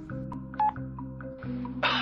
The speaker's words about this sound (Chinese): 我听了之后，拿起手机拨通了黎叔的号码。